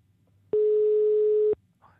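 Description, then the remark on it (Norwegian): A single loud, steady telephone ringback tone sounds for about one second, then cuts off abruptly, leaving a quiet line with faint background noise. “Det ringer lenge. Det pleier ikke å ringe så lenge.”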